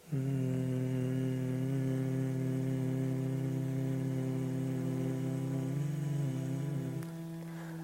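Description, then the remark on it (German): A person exhaling while humming during a guided breathing exercise: a single long, steady humming exhalation at a low pitch, clear, sustained for several seconds before dipping slightly in pitch and fading toward the end, with no talking. “Dann atme schnarchend ein und summend aus.”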